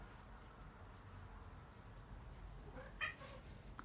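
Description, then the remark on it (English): A single short meow from the cat Mr. Magoo rises out of a steady low background hiss near the end, not loud, with no talking around it. “You hear that meow? I heard that meow.”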